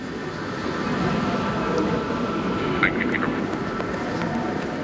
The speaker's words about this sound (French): Un train arrive dans la gare.